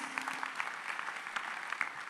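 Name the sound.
audience clapping hands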